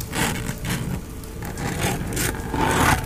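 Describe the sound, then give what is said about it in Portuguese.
Muffled scratching against the walls of a house, a rough rasping that repeats in uneven strokes over a steady low rumble, moderately loud, with no voices. “Como de algo arranhando as paredes da casa.”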